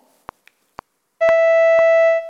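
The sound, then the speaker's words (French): A few evenly spaced sharp clicks, then a bright, buzzy synthetic tone enters and holds steady at one pitch while the clicks keep ticking through it before it cuts off. It is a synthetic demonstration sound of four different notes with an attack, tremolo and vibrato. “Là, vous avez un euh, spectrogramme d'un son que je vais vous faire utiliser avec, entendre, pardon, avec quatre notes différentes que vous allez entendre.”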